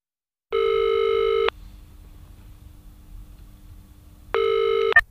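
A telephone ringback tone on an outgoing call to the German weather service's automated announcement line at the weather station in Potsdam: two steady, loud buzzing rings about a second long, separated by a few seconds of quiet line hiss, ending with a brief click.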